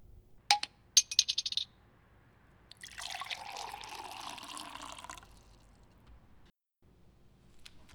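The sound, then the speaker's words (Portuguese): A few quick, bright clinks of glass, then a drink pours steadily into a glass for about two seconds, a rushing liquid sound with a shifting tone, before it stops. No one speaks. “por favor, traz mais uma”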